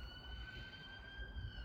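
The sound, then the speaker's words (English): A siren wails steadily with sustained high tones over low city rumble, heard from the roof of Parliament, with no voices in the foreground. “And that is a siren because we're on the roof of Parliament again.”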